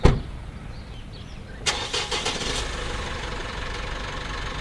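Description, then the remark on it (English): A car engine, with Reggie in a crate inside, cranks and turns over about a second and a half in, then settles into a steady idle rumble with no voices present, at the start of a four-hour drive back home. “The four hour drive back home should be smooth sailing, but Reggie's locked in well this time to avoid any chance of escaping again.”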